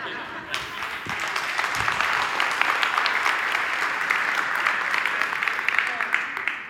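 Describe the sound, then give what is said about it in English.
A church audience listening to a sermon breaks into steady applause, a dense patter of many hands clapping that starts abruptly and holds at a fairly even level for several seconds. “And you notice the 25% clapping proves my point.”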